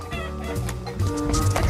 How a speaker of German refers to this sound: So, wir haben jetzt eine Herde Hühner vor dir.